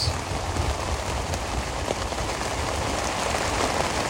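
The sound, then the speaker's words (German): Steady, dense rain drums on a tent canopy of a tent with a vestibule and sleeping compartment, a continuous patter with scattered sharper drops and a low rumbling undertone, no voices. “Ich habe hier schon Unwettergeschichten erlebt, die ein, zwei Tage gedauert haben.”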